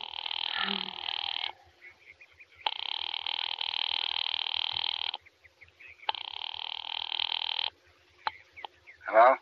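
A telephone call to a husband's office rings over the line in three long, buzzing bursts separated by short pauses, thin and band-limited like a receiver's earpiece, ending with a click and brief noise as it's answered.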